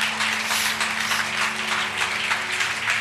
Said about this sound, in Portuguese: Voltou à vida. Voltou à vida. Pode aplaudir Jesus por isso.